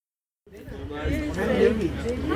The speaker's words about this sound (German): Hallo, guten Morgen. Ich melde mich hier vom 21. Retina International World Congress in Reykjavik, Island. Und ähm, hier treffen sich jetzt schon Delegierte aus allen Ländern. Man hört hier im Hintergrund ein Stimmengewirr.